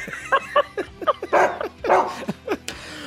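A string of short, high yips and whimpering whines from a dog, with a couple of fuller barks in the middle, coming in quick irregular bursts, fairly loud, with no talking.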